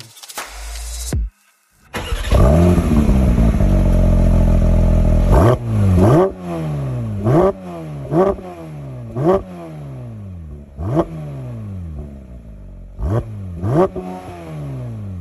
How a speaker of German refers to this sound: Falls ihr es noch nicht mitbekommen habt, das ist ein Saugmotor. Haben wir, glaube ich, noch gar nicht erwähnt an der Stelle. Ja, der will gedreht werden.